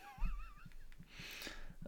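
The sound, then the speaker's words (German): A bottle of sparkling water is opened: a brief squeak, then a soft hissing rush of escaping fizz, faint, with light thumps underneath and no one talking. “Ich habe mir ein Wässerchen aufgemacht.”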